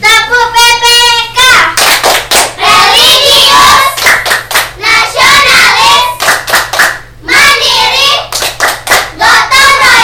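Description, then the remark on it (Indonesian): A group of children, standing during a school lesson, do the 'tepuk PPK' clapping chant, clapping in a quick, steady rhythm with sharp loud claps repeating throughout while their voices chant along in unison. “Baik, biar lebih semangat lagi, kita lakukan tepuk PPK.”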